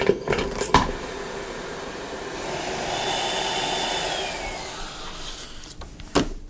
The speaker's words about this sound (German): So klingt es, wenn eine Sendung per Rohrpost ankommt. Statt in einem Paket oder einem Briefumschlag kommt der Inhalt hier in einer zylinderförmigen Büchse an.